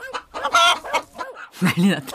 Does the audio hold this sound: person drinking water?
no